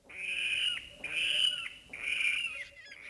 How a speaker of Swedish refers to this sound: Just det, det kommer jag ihåg när jag var på Nidingen en gång att vi hörde vattenralla skrika. Det var så här, oj, vattenrall här!